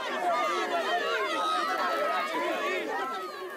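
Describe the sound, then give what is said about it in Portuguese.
A dense crowd jeers continuously at the scene of an accident in the late morning, greeting Prime Minister António Guterres with booing, whistles and some insults. Overlapping voices boo and shout, shrill whistles cut through, and the noise stays loud and sustained throughout, fading slightly at the end. “Assobios, apupos, até alguns insultos esperavam o primeiro-ministro no local do acidente ao final da manhã.”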